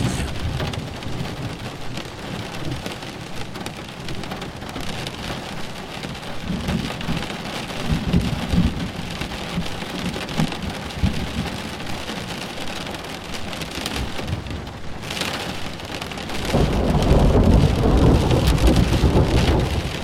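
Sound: thunderstorm with heavy rain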